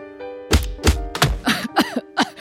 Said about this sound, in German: Komm, lass dir auf den Rücken klopfen.